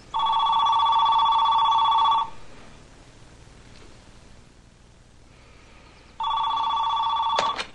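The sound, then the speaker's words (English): A telephone rings twice, each ring a loud, steady electronic trill lasting about two seconds, separated by a long quiet pause, then cut short by a click at the end. “After the family leaves for the day, she calls her neighbors and says,”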